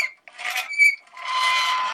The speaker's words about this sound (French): C'est une vieille patinette et j'ai transformé en, en pseudo porte de château qui fait des grincements.